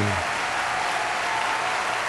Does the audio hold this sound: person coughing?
no